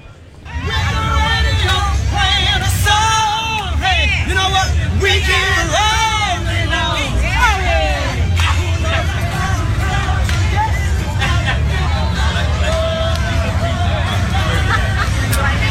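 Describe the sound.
A dense crowd of people lining up outdoors early in the morning outside the Charles H. Wright Museum of African American History in Detroit, Michigan, murmurs and chatters, overlapping voices forming a steady, loud babble with occasional raised voices, traffic rumbling low underneath throughout.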